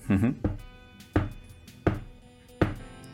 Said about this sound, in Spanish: Una de esas noches de cine, después de llevar dormido unas dos o tres horas, escucho golpear mi ventana. pum, pum, pum. Como quien da golpes en la puerta de casa para que le abran.